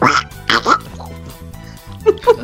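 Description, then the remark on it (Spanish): A person imitates a cartoon duck, producing a string of raspy, buzzing quacks in irregular bursts, fairly loud, with a short pause before a final pair. “como ganso, ese sí no lo tengo practicado, pero sí como pato Donald”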